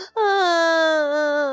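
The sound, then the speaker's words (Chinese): A single drawn-out crying wail, loud and steady, its pitch sagging slowly over about a second and a half, a voice imitating the dwarfs sobbing over Snow White in a telling of the Snow White story. “嗯，大大家的哭声把王子吸引了过来。”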